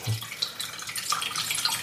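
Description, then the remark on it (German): Water trickles and drips steadily from a soaked bread roll being squeezed out for minced meat, fairly soft, with small splashy patters throughout and no talking. “Aber ich will ja kein, kein Wasserhack, deswegen müssen wir das Brötchen schön ausfringen.”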